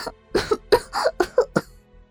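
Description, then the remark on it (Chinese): A woman fakes a cough: a quick string of about six short, harsh bursts packed into two seconds, moderately loud and with no talking. “我假装咳嗽”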